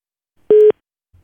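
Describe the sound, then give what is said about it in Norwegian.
A single short, loud telephone tone during a phone call to Ruter, a steady electronic beep of about a fifth of a second, heard on its own with silence around it and no voices. “Så da skal vi høre hvordan det gikk da Hans Olav ringte til Ruter, Ruter, Ruter.”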